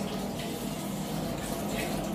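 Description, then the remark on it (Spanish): Water sloshes and trickles steadily as cut potatoes for French fries are dropped into a bowl of cold water to remove their surface starch, a continuous wet churning with no one talking. “Agarramos estas papas y las llevamos al agua fría.”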